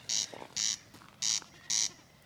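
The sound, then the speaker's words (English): A snipe drumming, making the sound with its wings in a display flight at first light: four short, high-pitched buzzy bursts repeated at an even, steady rhythm, clear against a quiet outdoor background with no talking. “And if you can hear that kind of noise that occasionally listeners, then that's a snipe.”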